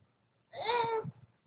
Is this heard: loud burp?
no